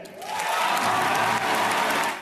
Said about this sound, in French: Sous les applaudissements, Justine Trier remporte la Palme d'Or.